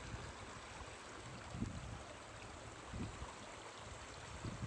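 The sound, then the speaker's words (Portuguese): Outdoor forest ambience recorded on 20 December 2021: a steady rush of a waterfall and wind, with soft, low sea swells surging roughly every one and a half seconds. Fairly quiet, with no voices. “Som da mata, cachoeira, mar e vento, gravado em 20 de dezembro de 2021, com o pedido e intenção de que Arcanjo Miguel e os mestres ascensos realizassem todas limpezas curas e libertações necessárias através deste som”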